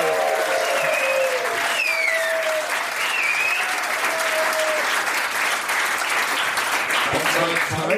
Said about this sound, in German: Wir sitzen in Angies Nachtclub auf der Reeperbahn, eine Straße, die eigentlich nur für den Sex gebaut wurde. Und damit wir auch hören, dass hier ein lebendiges Publikum am Start ist, machen die jetzt mal richtig Lärm.